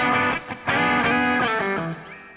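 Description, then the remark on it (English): A voice imitates the reverb-soaked electric guitar of a record's middle section, singing a short phrase of several sustained, twangy notes with smeared, echoing tails, fairly loud with no other talk. “…'s reverb drinks”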